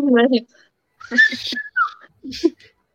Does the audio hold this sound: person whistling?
yes